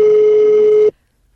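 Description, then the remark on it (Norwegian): A single loud, steady electronic telephone ringing tone, heard as if through the line, holds for just under a second and then cuts off abruptly into silence. “Det er ringelyd.”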